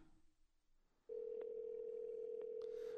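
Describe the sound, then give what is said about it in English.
A steady, loud telephone dial tone hums after a brief quiet start, interrupted by a couple of short keypad beeps as a number is dialed to call someone and leave a voicemail. “I'm gonna talk over his number so nobody can hear it.”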